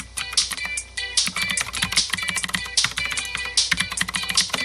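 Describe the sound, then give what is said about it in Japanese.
Rapid typing on a computer keyboard while writing comments during a livestream, a dense stream of crisp clicking keystrokes with a few brief pauses, fairly steady in loudness and with no voices. “すごかですねって書いおこう。”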